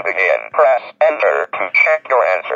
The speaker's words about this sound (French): Alors, il y avait une version française, je ne me rappelle plus comment elle s'appelle, mais c'est Speak and Spell. Euh, Speak and Spell. Ouais. Ah, c'est la dictée magique. C'est la dictée magique.